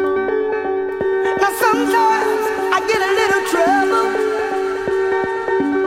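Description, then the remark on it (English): A dance music track plays loud, with a steady thumping beat under a sustained, somber minor chord and a wavering melodic line rising over it midway. “and I've now learned how to include sadness in dance music speed tracks, and it's with that minor chord, you can hear it bouncing in the background.”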